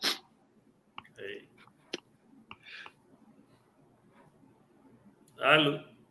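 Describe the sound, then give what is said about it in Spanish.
A sudden, loud sneeze bursts out near the end, following a short sharp puff at the start and a few faint clicks and breathy sounds. “Salud, salud. Salud.”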